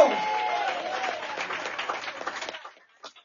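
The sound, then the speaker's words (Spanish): An audience breaks into applause for Christ, a dense wash of many hands clapping at once that holds steady for a couple of seconds, then thins into scattered claps and fades out. “¡Dame un aplauso a Cristo, sonríe a Cristo le ama.”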